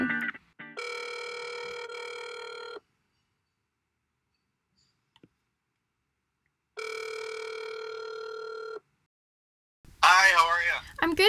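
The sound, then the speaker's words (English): Two long electronic telephone ring tones, each about two seconds, separated by a pause of silence, then a voice briefly answers as the call connects. “today we picked up the phone to talk about how students can cope with mental illness while dealing with their everyday responsibilities.”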